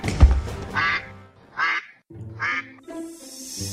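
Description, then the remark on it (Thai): A duck quacks three times in a steady rhythm, each call loud and nasal, with short pauses between them and a faint hiss lingering at the end. “เมื่อคำตอบของเป็ดได้ขัดกับความคิดของงูเห่า มันจึงได้รู้สึกโมโหเป็นอย่างมาก มันจึงได้งับคอเป็ดจนขาดใจและเสียชีวิตอยู่ตรงนั้น”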